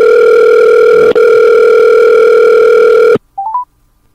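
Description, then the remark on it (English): A loud, steady telephone dial tone hums for about three seconds, cuts off, then three quick rising electronic beeps follow in the silence, as a call is placed by phone after the Wi-Fi signal was lost. “Uh, no Wi-Fi signal, so we're gonna kind of wing it via phone until I can get that.”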